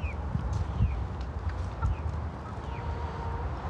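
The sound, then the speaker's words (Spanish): A flock of hens that have come to the fence clucking together in a steady, busy murmur, with short higher calls popping out now and then over a low rumble. No one speaks. “Son como perritos las gallinas.”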